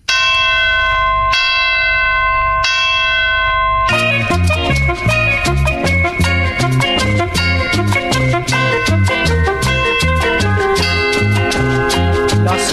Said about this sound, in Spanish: campanas de la iglesia están doblando, anunciando ya una nueva Navidad.